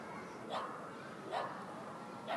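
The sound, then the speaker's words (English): Dogs give three short, sharp barks and yips, evenly spaced about a second apart, over a steady background hiss, with no one talking. “Let's just say the dogs don't like it.”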